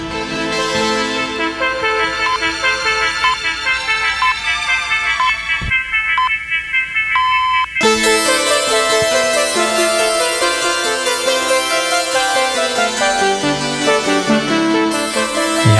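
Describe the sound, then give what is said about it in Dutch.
The VPRO broadcaster's intro jingle plays loudly on its own, a bright, brassy, horn-like tune with stacked tones. Around the middle it thins briefly to a few sustained notes before the full sound returns. “mag ik nog één keer dat prachtige intro laten horen”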